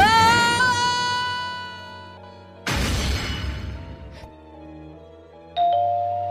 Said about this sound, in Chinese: 门铃响了。